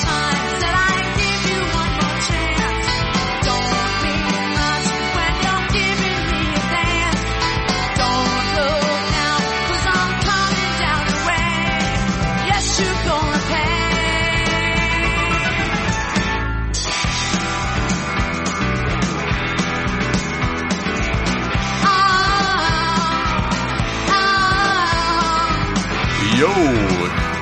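A recorded song from an album plays continuously at a steady, full volume, with dense layered instruments and what sounds like a singing voice, briefly dropping out for a moment midway before resuming.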